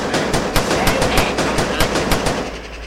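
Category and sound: impact, gunfire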